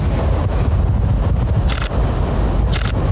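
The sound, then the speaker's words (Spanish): Two quick bursts of rapid-fire DSLR shutter clicks, crisp, separated by about a second, as a photographer takes many shots of a dog outdoors, over a steady roar of wind rumbling against the microphone. “escucharéis que hago un montón de disparos, pero no me quedo con todas esas fotos.”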